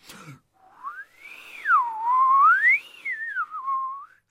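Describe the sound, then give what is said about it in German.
A person whistles an imitation of a hermit thrush's song: one smooth, unbroken tone gliding up and down over about four seconds, clear, with no talking. “Hm, meine Freundin, äh, die Einsiedlerdrossel zum Beispiel.”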